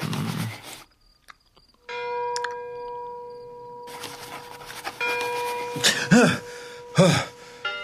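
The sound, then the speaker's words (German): Church bells ring out at night in the countryside with long, sustained tones that hum and linger, starting after a brief quiet and swelling as more strikes join, ending in a couple of louder clangs. “Sind das Glocken?”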